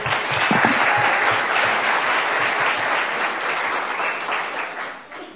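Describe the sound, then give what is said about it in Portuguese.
A round of audience applause for a family's great-grandparents, dense and steady clapping from many hands, holding for about five seconds before tapering off at the end. “Uma salva de palmas para eles.”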